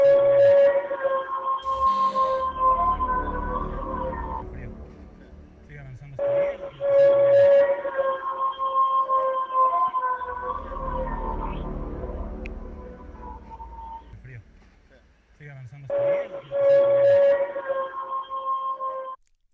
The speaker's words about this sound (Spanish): y cuando ya estuvimos a punto de decir, se acabó, el grito nuevamente nos envolvió.